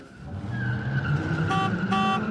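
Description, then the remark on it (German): Bumper cars at a Christmas market hum and whine with a steady electric drone over low rumbling, then two short bright buzzing bursts ring out near the end; no one speaks. “Und manchmal gibt es da auch Autoscooter.”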